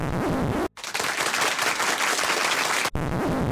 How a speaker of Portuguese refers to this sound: Uma salva de palmas para as máquinas virtuais.